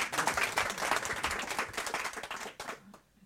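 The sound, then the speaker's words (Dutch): An audience bursts into steady, dense applause for a female guest being introduced, many hands clapping together for a few seconds before it quickly tapers off and fades to near silence. “Geef haar een, applaus.”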